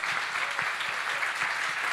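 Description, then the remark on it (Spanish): An audience claps steadily for the Lord, a dense wash of many hands with scattered sharper claps popping through, sustained and even in loudness across the whole stretch. “Pero ¿será que la gente de aquí puede aplaudir mejor al Señor porque Él es”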